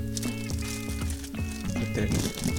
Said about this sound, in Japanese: 袋の音なんか聞かしちゃったりして